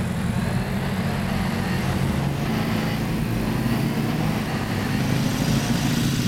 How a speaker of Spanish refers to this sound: ¡Ay, nunca me había subido una moto tan grande! ¡Qué loco!